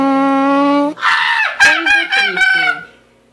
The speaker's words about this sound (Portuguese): Peido tímido.